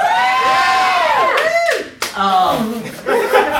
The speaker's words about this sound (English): I love that. That got applause.